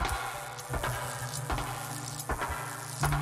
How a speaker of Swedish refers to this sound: För varje steg han gick så klonkade och sprakade lite grann. Som att han gick på en hård lackad yta med elektricitet.